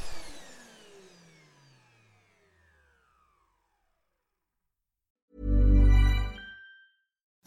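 household object, vacuum cleaner running

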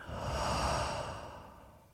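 human body sound, breathing in through nose

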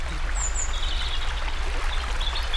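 nature, flowing river water

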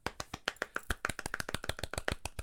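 crowd, round of applause

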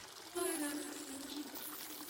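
household object, shower running

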